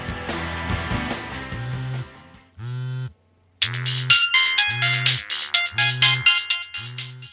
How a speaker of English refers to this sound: It's the office calling again. Don't answer it.